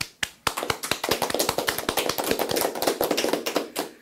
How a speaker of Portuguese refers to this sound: Palmas.